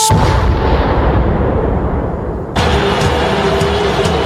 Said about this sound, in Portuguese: Vem uma explosão atrás da outra de maneira frenética. No telão, umas bombas atômicas explodindo. Alegria! Implosão de prédio, explosão de míssil.